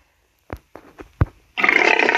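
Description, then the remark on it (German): Four short, guttural grunts from a Piglin, a video game pig creature, spaced unevenly, followed by a louder, longer rasping snarl that runs to the end. No one speaks. “Bei mir ist ein Schwein.”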